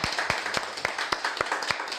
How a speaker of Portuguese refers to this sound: Isso aí, vamos dar uma salva de palmas aqui é. pro, pro nosso imperador Adriano.